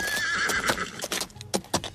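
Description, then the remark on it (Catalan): A horse whinnies with a bright, wavering neigh while hooves clip-clop in a quick, uneven rhythm, close and fairly loud, with no voices present. “Per això, a mesura que Mahoma va tenir més seguidors, el van voler executar i ell va haver de fugir de la Meca en camell i en els seus cavalls.”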